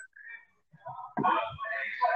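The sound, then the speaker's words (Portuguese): An egg-seller's truck loudspeaker blares a tinny, amplified voice announcement from the street, muffled, growing louder partway through as it rolls past. “Vê, tu consegue escutar um, carro do ovo passando aqui?”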